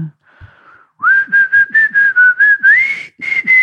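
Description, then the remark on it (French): A person whistles a short tune, clear sustained notes with slight pitch slides, broken into a quick rhythmic run of pulses after a brief opening tone. “C'est assez la solitude également hein, de siffler.”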